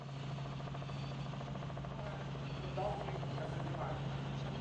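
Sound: helicopter rotor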